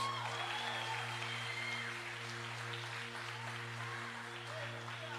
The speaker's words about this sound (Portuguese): Você pode aplaudir a Ele por isso, irmãos?